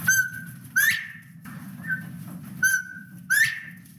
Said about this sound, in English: Bob-white quail get their name from their distinctive whistle because it sounds like they're saying Bob White. UC Assistant Biology Professor Elizabeth Hobson is happy to hear their calls just down the hall from her office.